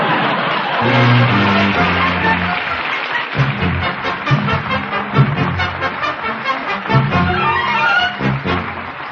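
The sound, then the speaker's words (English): A deep, booming ocean liner whistle sounds in a long blast, then sounds again in shorter bursts over a steady wash of crowd-like noise, loud throughout. “That's an ocean line whistling for the winner of Rinso's sensational new contest.”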